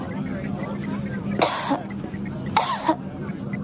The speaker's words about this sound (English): How long have you had that cough? A few days now.